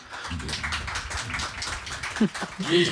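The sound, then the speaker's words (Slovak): A room of people applauds for a few seconds, a steady wash of clapping with voices cutting in over it toward the end. “ja môžem dorobiť potlesk, ale ja by som zatleskal, že také čosi existuje, že máme teda aspoň zoznam a databázu.”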